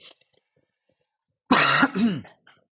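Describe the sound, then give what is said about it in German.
A short bout of nervous coughing toward a microphone: one loud, harsh burst followed by a quicker, raspy throat-clearing sound, then quiet. No one speaks. “Dieses nervöse Husten immer, ne?”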